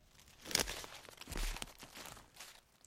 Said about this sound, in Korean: 어디선가 들려오는 발소리. 어? 무엇이요? 도둑이요?